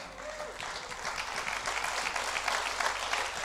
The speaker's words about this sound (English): Come on, clap your hands like God's awesome. Come on.